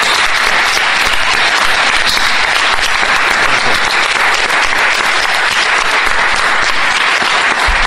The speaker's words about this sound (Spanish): Yo les propongo, eh, vale la pena aplaudirle a un astrónomo.